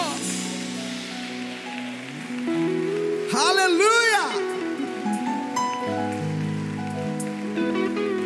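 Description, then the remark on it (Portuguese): A church audience applauds the Lord in a steady, dense wash of clapping for several seconds, while a voice calls out briefly over it and sustained musical tones play underneath. “Vamos aplaudir mais uma vez o Senhor.”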